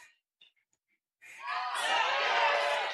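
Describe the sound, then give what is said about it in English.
After a second of near silence, a crowd erupts into loud, sustained cheering and clapping that swells and holds steady to the end, at a weightlifting event following a successful lift. “And you can hear some of the excitement and the clapping in the background.”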